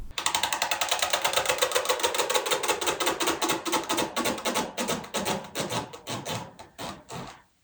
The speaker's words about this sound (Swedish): Ja, vad vi tror är felet här är att det är fläktbladen som skaver emot något annat i fläkten som gör att den låter sådär. Hmm, kanske dags att byta ut den.